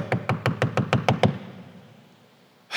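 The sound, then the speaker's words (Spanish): About eight quick, evenly spaced, loud knocks on the door of a house, followed by a fading silence before another sound starts right at the end. “Y alguien tocó la puerta.”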